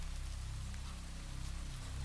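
Steady rain falls in a continuous soft hiss over a low rumbling undertone, fairly quiet and even throughout, with no voices.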